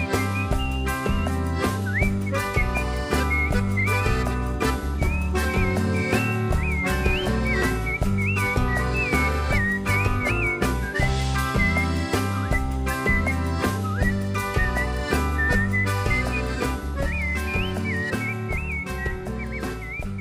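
A person whistles a lilting tune, the bright melody carried steadily for about twenty seconds over a full, rhythmic musical accompaniment, with no one talking.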